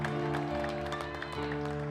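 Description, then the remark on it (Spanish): A church audience claps steadily, the dense patter of many hands running over a sustained, droning musical chord that holds throughout. “Por su gracia hoy usted iglesia está aplaudiendo en este lugar.”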